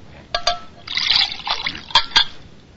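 Water trickles and splashes into a glass for a couple of seconds, with a few sharp clinks at the start and near the end.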